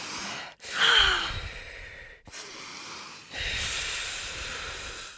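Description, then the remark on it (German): Deep, audible breathing: a strong breathy inhale followed by long, airy exhales in three sighing waves over about five seconds, with no talking. “Jetzt kurz nochmal tief ein- und ausatmen.”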